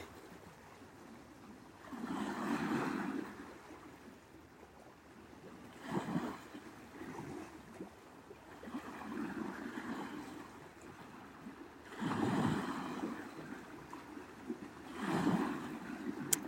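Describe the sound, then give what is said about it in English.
Waves on Gitchigami, the big lake, wash ashore in repeated surges every few seconds, each swell rising into a broad rush and then receding into a soft steady hiss. No voices are heard. “Just breathing in, taking in the sound currents, Gitchigami, the big lake.”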